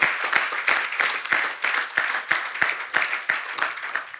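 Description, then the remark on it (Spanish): An audience applauds steadily after saying amen during a Spanish-language sermon, a dense crowd of hand claps with loud, regular rhythmic accents running through, sustained for several seconds without speech. “Cuando dicen amén, se le va a aplaudir, hágalo de verdad.”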